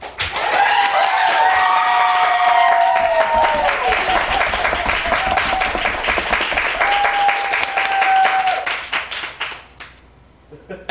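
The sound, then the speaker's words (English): An audience at a debate bursts into loud, dense applause to vote for the debate's winner, with shrill whistles and cheering voices over the clapping, holding steady for about nine seconds before fading out quickly. “if you believe that the winner of this debate was Ashley Ray Harris arguing for North Korea, please applaud now.”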